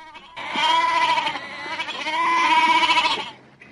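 A goat bleats twice in a row, each call long, loud and quavering, with no other sounds around it.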